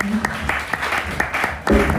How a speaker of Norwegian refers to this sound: Men da takker Åpen folkekirke for seg. Ja, åpen folkekirke. Klapp til Åpen folkekirke.